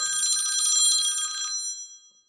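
A phone rings with an incoming call from a colleague: a bright, high, bell-like trill that rattles rapidly for about a second and a half, then cuts off and leaves a ringing tone that fades out. No one speaks.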